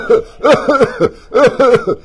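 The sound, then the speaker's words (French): A person fakes a coughing fit, like someone who breathed while drinking so a little water went into the lungs, voicing a quick series of short, throaty cough bursts in two clusters, fairly loud with no other speech. “Il tousse.”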